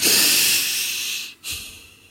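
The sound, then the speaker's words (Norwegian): A loud, sharp inhale through the nose as a person demonstrates breathing in again after holding the breath: a breathy hiss lasting over a second, then a brief pause and a second shorter breath, with no talking. “Jeg pusta likevel med nesa likevel rolig, så var det langt over min grense, for jeg pusta ikke like rolig som jeg sitter og gjør nå, da.”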